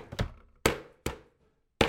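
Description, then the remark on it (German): Meat cutlets for schnitzel being pounded flat: four heavy, dull thuds at an uneven pace, fairly loud, each with a short decay and brief silences between, with no voices. “Gut, dann geht es los. Klopfen!”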